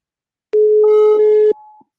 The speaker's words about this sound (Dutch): Horen jullie ook een... Nou. Ja, je hoort hem toon overgaan. Dat is leuk.